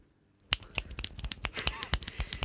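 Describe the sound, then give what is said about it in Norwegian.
A brief burst of many fingers snapping together as applause after a poem is read, a crisp, irregular patter of sharp clicks starting abruptly after a moment of silence and continuing steadily. “Det er vår form for klapping her i lyrisk eh, ja.”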